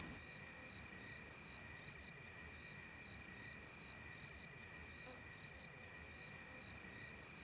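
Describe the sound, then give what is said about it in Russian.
A steady, dense chorus of crickets trilling continuously at night in the steppe, their high-pitched chirps layered evenly throughout with no pauses, over a faint low background hum and no voices. “Лишь ковыль машет мохнатыми лапами, да трещат сверчки.”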